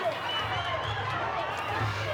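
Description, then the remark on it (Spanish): A lucha libre crowd at Arena Naucalpan, in the west of the State of Mexico, roars with overlapping shouts and scattered sharp whistles, calling for the wrestlers to come out, a steady, dense wall of noise that stays loud and unbroken throughout. “Al ritmo de trompetas, chiflidos y gritos, la gente clama porque salgan los gladiadores.”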